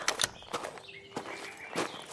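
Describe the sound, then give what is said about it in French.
Footsteps of three people leaving a house and walking toward a shed, a handful of crisp, uneven steps scuffing along at a moderate pace, with faint high tones lingering in the background and no talking. “quittèrent la maison de la natte et se dirigèrent vers le hangar.”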